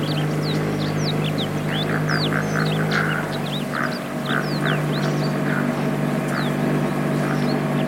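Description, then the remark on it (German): A motorboat on a boat expedition, piloted by local scouts through narrow reed channels, drones steadily at a low pitch throughout, with ducks quacking and birds chirping repeatedly over the hum. “Mit ortskundigen Scouts, die zwischen Myriaden Stechmücken navigieren. Die Loten in Motorbooten.”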